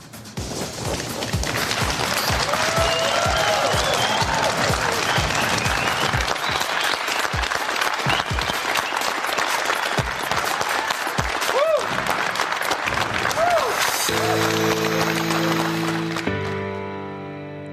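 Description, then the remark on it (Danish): Sustained crowd applause with scattered cheers and whoops at a Daft Trucks digital launch event presenting a new truck generation, loud and dense for most of the stretch, then giving way to a sustained musical chord before fading out. “Ja, sådan her der lød det forleden, da Daft Trucks ved et digitalt lanceringsevent præsenterede en helt ny lastbilgeneration med et udviklet førerhus til langturstransport.”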